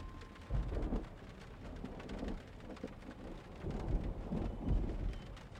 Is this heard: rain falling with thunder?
yes